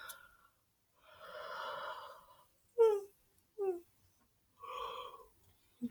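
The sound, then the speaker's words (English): A drawn-out yawn: a long breathy inhale, two short voiced groans that slide downward, then a final airy exhale. No talking. “Don't know if that yawn picked up on Mike, but if it did, um, sorry about that.”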